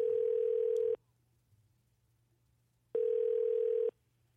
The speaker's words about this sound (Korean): 4342 특파원. 전화 연결해 보겠습니다.